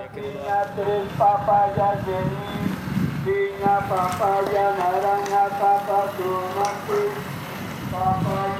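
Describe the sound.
A street greengrocer calls out in a loud, drawn-out singsong voice, repeating phrases over steady outdoor street noise, recorded from a second-floor window.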